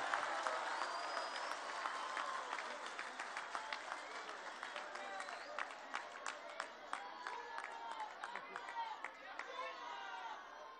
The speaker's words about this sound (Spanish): Un aplauso